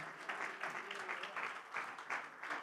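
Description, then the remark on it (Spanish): An audience claps steadily in praise of the Lord, a dense wash of many hands with rhythmic swells every half second or so, moderately loud and continuous throughout, with no clear voices over it. “Más fuertes aplausos de alabanza para el Señor, mis hermanos.”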